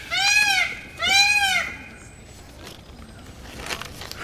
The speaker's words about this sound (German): Wo kommt denn das her? Ich höre es hier nur schreien, aber ich sehe den Vogel nicht, der da schreit. Doch, da hinten, da sehe ich was Blaues durchschimmern. Da ist tatsächlich ein Pfau aber er schlägt sein Rad nicht, dann ist er unauffällig.